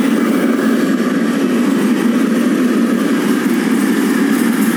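A very long freight train of tank wagons rumbles past a level crossing, a steady, loud low-pitched roar with a droning hum that holds constant throughout, with no voices over it.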